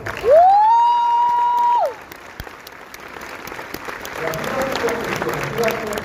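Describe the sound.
Audience applause, a steady crackle of many hands clapping, begins after a loud rising, sustained electronic tone and continues with voices talking over it.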